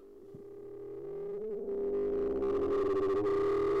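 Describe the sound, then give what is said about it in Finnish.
Sustained analog synthesizer tones drone steadily, swelling in loudness with warbling, wobbling pitch bends and a buzzy, harmonically rich texture that grows brighter and more distorted toward the end. “Analogisia syntetisaattoreita ei voi täysin hallita.”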